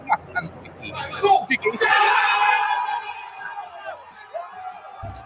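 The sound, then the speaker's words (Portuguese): During a Palmeiras versus Atlético Paranaense football match, a voice lets out a premature, long, drawn-out shout of "goal," rising loudly over a noisy crowd after some brief chatter, then fading back into the hubbub. “Alguém gritou gol antes. Não grita gol.”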